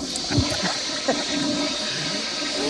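A toilet flushes in a steady, rushing wash of water that stays loud and close for the whole moment, with gurgling swirls underneath and no voices.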